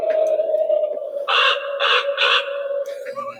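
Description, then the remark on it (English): A motion-activated animatronic raven Halloween decoration caws three times in a steady rhythm, loud, with harsh raspy bursts over a constant electronic hum. “So it look it appears to be an animatronic raven?”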